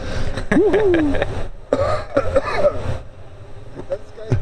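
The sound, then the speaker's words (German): A throat clearing, made with the cough button pressed, comes through faintly via other people's microphones, followed by muffled voiced sounds and brief noises, with a low background hum throughout. “das ist geil, ich mache Räusper-Taste und höre mich dann durch eure Mikros trotzdem äh, äh, huschen.”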